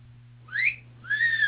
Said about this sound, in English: if I have yeah. a whistle sound effect. Let me check because every like, time they try to talk, it's like blowing a whistle.